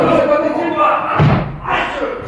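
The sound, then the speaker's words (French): A single heavy door slam booms out near the middle, a loud thud over a steady murmur of voices and room noise that continues afterward. “La porte, la porte.”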